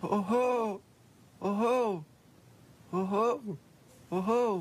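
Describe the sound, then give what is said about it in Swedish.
A person imitates a cuckoo with four loud hooting calls, evenly spaced about a second apart, each a short two-note voiced 'coo-coo' with brief pauses between. “sitter uppe i en trädtopp och härmar gök till exempel, det är en av mina favoriter.”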